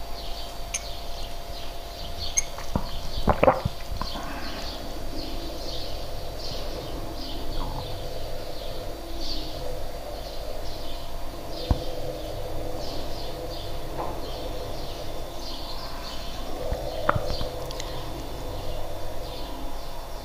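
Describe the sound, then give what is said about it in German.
Birds sing faintly in the background with a steady stream of short, repeated chirps throughout, over a constant low electrical hum from a refrigerator and a few scattered knocks; no one speaks. “Hintergrund wäre der Kühlschrank, die Vögel.”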